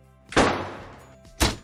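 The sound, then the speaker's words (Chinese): A heavy door slams shut in a psychiatric hospital, heard by explorers heading to the top floor, with a loud, booming thud and a lingering rumble, followed about a second later by a second sharp bang. No voices are heard. “对，一个巨大的摔门的声响。”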